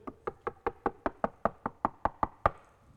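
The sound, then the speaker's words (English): A steady series of about a dozen firm knocks on a wooden door, evenly spaced, each a sharp thud with a short resonance, ending on a slightly louder final knock. “behold i stand at the door knock if any man hear my voice listen and open the door i will come in and i will sup with him and he with me”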